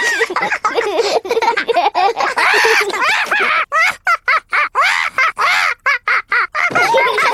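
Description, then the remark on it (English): Polly Parrot squawks loudly and repeatedly as Peppa and George play with it, harsh rasping calls coming in quick, choppy bursts with short gaps, filling the whole stretch. “Peppa and George are really enjoying playing with Polly Parrot.”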